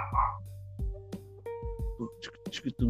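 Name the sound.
dog barking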